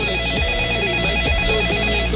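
A telephone rings continuously and fairly loudly, a steady electronic ringtone with layered tones repeating without pause, and no voices.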